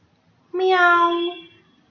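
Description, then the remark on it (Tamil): A single drawn-out cat meow, clear, holding a steady tone for about a second before trailing off, with near silence around it; the cat is in the distance in pitch darkness. “ஆமா அது ஒரு பூனையோட கண்கள்”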